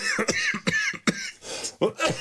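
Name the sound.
coughing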